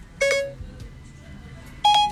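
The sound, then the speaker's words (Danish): The Siri voice assistant activation chime on an Apple phone plays twice: a short bright electronic tone with stacked harmonics, then a quiet pause with faint background noise, then the same chime again, clear. “Eller det kan være, at du ligger i sengen med din kæreste og lige snakker om dagen, der er gået, og så pludselig så kommer den her lyd.”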